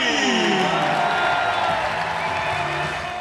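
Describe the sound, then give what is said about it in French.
A large crowd on the central court at Roland Garros, at night, applauds the players' arrival, among them Novak Djokovic, a dense, steady wash of clapping mixed with murmuring voices, loud throughout and easing slightly toward the end. “Quel bonheur d'entendre ces applaudissements à l'arrivée des joueurs.”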